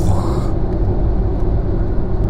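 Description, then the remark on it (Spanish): Loud, steady road noise inside a car moving along a long road outside Spain: a dense, continuous low rumble of tires on asphalt that fills the cabin without letting up, with no clear talking over it. “pero sobre todo recuerdo aquellas carreteras infinitas y cómo el asfalto producía un ruido muy intenso dentro del coche.”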